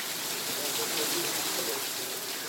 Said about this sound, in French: Infiltration multiple, ici à Fontenay-le-Fleury lors d'une forte pluie cet été.